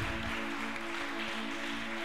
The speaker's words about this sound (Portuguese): Aplauda ao Senhor mais uma vez.